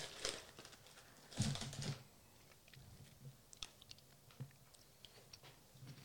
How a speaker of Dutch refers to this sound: Ik ga er gewoon één op mijn tong leggen. Om te kijken hoe smaakt specifiek zeg maar, dat koekje nou. Want je hebt heel snel die crèmevulling, maar...